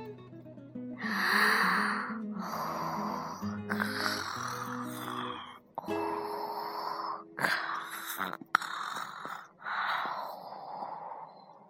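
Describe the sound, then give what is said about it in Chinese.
A voice imitates yawning, with several long, breathy, drawn-out vocal yawns that rise and fall in pitch, separated by short pauses and fairly loud throughout. “小兔子打了一个哈欠，”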